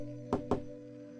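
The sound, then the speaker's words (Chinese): Two quick, hard knocks in rapid succession, a man's urgent rap at night on Granny Hua's door, sounding over a steady low hum before everything settles back to the hum alone. “砰砰砰，一阵急促的敲门声响起，在安静的夜晚显得格外刺耳，又显得那么诡异。”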